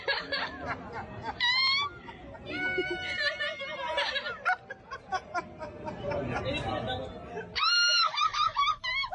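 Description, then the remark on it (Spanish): A crowd of voices shrieks with joy, loud, high-pitched, overlapping screams rising and falling amid excited chatter and laughter, with a fresh burst of squeals near the end. “Puro grito de felicidad.”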